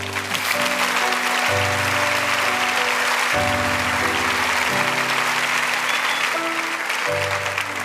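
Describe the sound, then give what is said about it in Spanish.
A church audience applauds the word of God loudly and steadily for several seconds during a sermon, a dense continuous clapping, while sustained keyboard chords shift underneath. “A ah, darle a la palabra de Dios un fuerte aplauso.”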